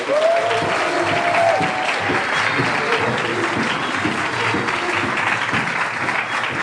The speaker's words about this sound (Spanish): De verdad vamos a darle un aplauso de verdad.